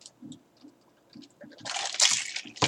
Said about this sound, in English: Let me hit another glass, uh, sip of water.